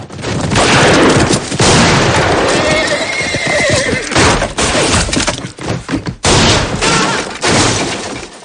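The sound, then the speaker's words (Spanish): A horse whinnies loudly amid galloping hoofbeats, with sharp gunshot-like bangs and crashing impacts in a dense, chaotic action scene, as a rider is shot while people run out. “Mientras salen corriendo, hiere a un jinete.”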